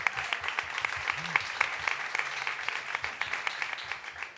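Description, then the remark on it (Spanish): Steady applause from an audience on the show Hombre de Luna, welcoming a guest: many hands clapping in a dense, continuous patter that holds at an even, moderate level throughout, with faint voices murmuring underneath. “Fuerte aplauso”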